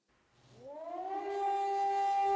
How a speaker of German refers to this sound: Sirenenalarm nördlich von Tel Aviv. Als am Dienstag dann die erste Sirene losging, ich war mitten im Business-Meeting abends und äh, dann sind wir halt alle irgendwie die ganze Familie halt, äh, mein Mann, ich und meine, unsere Kinder halt ins Zimmer